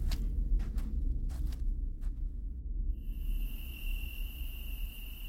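Crickets chirp through a summer night, first as scattered bursts, then settling into a steady high trill over a low rumble of wind and faint rustling of leaves.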